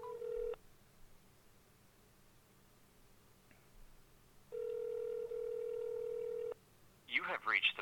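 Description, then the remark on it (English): A telephone line rings back twice on a call to the Pottsboro police station, each a long steady electronic tone separated by a stretch of quiet, before a voice picks up at the very end. “Let's call the, par- the police department and find out and see if we can get uh, see if we can get any word from them as to why this is happening.”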